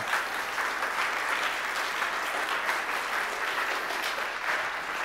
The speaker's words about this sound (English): And when we clap for people who are playing music and, and doing the offertory or whatever else, and we show our thankfulness for them sharing their gift to us, I think that is a praise to the Lord